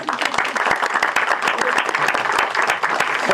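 A crowd bursts into steady, dense applause for a new trainee, many hands clapping at once in a continuous, fairly loud wash that holds evenly for a few seconds.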